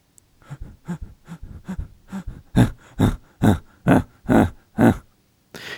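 Rapid diaphragm breathing with only the belly active, a pumping of mainly exhalations: about a dozen sharp breaths through the nose, evenly spaced roughly twice a second, starting soft and growing louder and more forceful. No talking.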